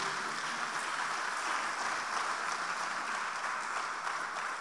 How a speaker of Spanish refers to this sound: Denle un aplauso al Señor, por favor, en esta noche.